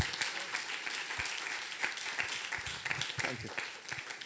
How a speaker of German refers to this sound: Lass uns ihn begrüßen nochmal mit einem Applaus,